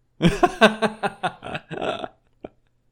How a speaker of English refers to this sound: Did you just say you burped? I burped.